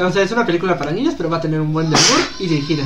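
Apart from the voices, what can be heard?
sneeze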